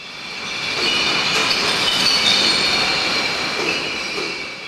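Single-use glass bottles clatter continuously in a dense, steady mass at a sorting facility, their overlapping clinks blending into a loud, high, ringing roar that holds for the whole stretch without pause.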